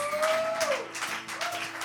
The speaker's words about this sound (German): Und lass mal gemeinsam aufstehen und wirklich Pastor Konsti mit einem großen Applaus hier auf der Bühne begrüßen. Make some noise!